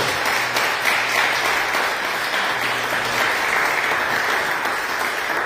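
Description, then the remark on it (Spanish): A large church audience claps steadily together, applauding God during a sermon, a dense, continuous wash of applause for several seconds at an even, fairly loud level, with no one speaking over it. “Así es de que, ¿cuántos le, dan un aplauso a ese Dios tan misericordioso, tan poderoso?”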